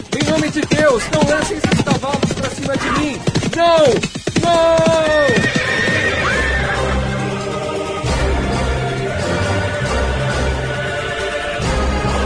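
Horses neigh loudly in shrill, wavering cries, then a dense, continuous rumble of trampling hooves fills the rest, with agitated vocal sounds mixed in at the start, as robbers attack a traveller near Aldeia da Aparição, the last stop before Paraty, and the horses trample him.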